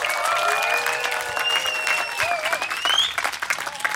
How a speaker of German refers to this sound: Könnt ihr mal ein bisschen Lärm machen, damit die Leute mir auch glauben, dass ihr da seid und ich hier nicht Quatsch erzähle?